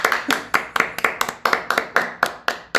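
Steady hand clapping, about a dozen sharp, bright claps in a quick, fairly even rhythm over a few seconds, each one snapping and fading fast, with no talking over them.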